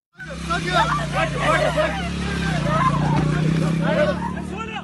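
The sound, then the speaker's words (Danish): A steady motorcycle engine drone runs throughout as Hamas fighters carry a young woman away on it from a music festival near Gaza; she screams and her boyfriend shouts after her, several voices yelling loudly over the engine, its tone shifting slightly as it moves. “Den unge kvinde, hun bliver kørt væk på en motorcykel, mens hun skriger og rækker ud efter hendes kæreste, der råber efter hende.”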